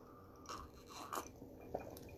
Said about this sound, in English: I'm gonna take a quick sip here of my whiskey beverage.